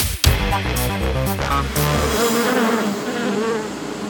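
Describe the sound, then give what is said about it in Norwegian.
Honeybees at Fettsund, Norway, buzz in a steady droning swarm that wavers in pitch, with a short musical phrase playing over the first couple of seconds before the buzzing carries on alone. “Ukesluttsreporter Runa Leinan tok turen til Fettsund for å finne svaret på hvorfor honningbiene er så”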